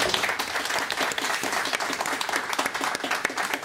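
A studio audience breaks into steady, dense applause, many hands clapping together at an even volume for a few seconds, close and full with no talking over it.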